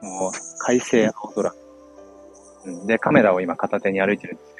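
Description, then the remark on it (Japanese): Cicadas buzz in a steady, high-pitched drone throughout, continuous and moderately loud outdoors, while a man talks in Japanese over it as he walks home. “ダラダラ普通に歩きながら喋ってますけど、もうセミが鳴いてて”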